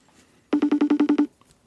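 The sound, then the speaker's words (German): A telephone ringing tone from a call placed live on air to a Swiss co-host sounds as a quick run of about nine evenly spaced beeps at one steady pitch, loud and clear for under a second, with near silence before and after. “Lässt er uns klingeln.”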